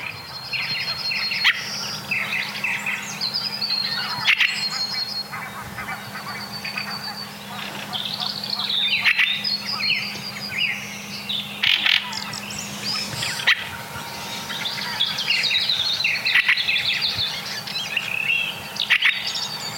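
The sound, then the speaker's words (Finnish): A fieldfare gives harsh, chattering calls in repeated bursts throughout, clear over a steady low outdoor hum, with no one speaking. “Ja nyt kuunnellaan räkättirastasta ihan rauhassa.”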